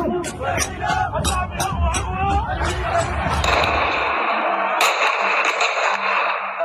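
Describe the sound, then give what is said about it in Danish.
A noisy street crowd of protesters demanding democracy in Sudan shouts and clamors while a rapid series of sharp bangs like gunfire cracks out over it, then the shots stop and the agitated crowd noise carries on. “Det her er lyden af kampen for demokrati.”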